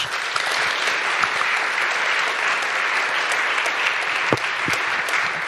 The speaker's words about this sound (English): But at first, I give, uh, give a warm applause to our panel and I, give, I hand over the word to you.